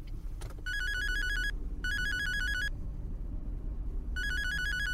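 A mobile phone ringtone rings in three electronic bursts with short gaps, fairly loud, over a steady low rumble of a car engine running while its owner drives.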